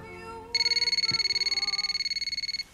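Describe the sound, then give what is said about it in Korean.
A telephone rings with a call from a university classmate: a rapid, trilling electronic warble, a bright high-pitched tone pulsing steadily for about two seconds before stopping abruptly, with no talking. “그러던 중 대학 동창인 친구에게 전화가 왔습니다.”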